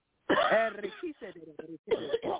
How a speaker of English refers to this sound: Come on out. Deep breath and cough.